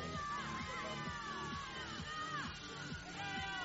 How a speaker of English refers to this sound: Any support from the Norwegian crowds here cheering her on all the way to the finish.